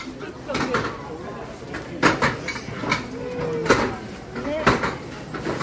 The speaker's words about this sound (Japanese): メガヤ餅はあんこを薄いお餅で包んではさみ焼きし梅の花の焼き印をつけたものです目の前で職人さんがお餅の丸い塊を上下で挟んで手際よく焼いていっています